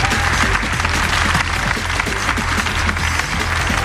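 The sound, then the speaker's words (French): A crowd applauds a man who has just given his leather jacket to another participant, dense overlapping claps forming a loud, continuous wash of sound that holds at the same level for several seconds with no voices standing out. “On peut l'applaudir, il est sport, il donne sa veste.”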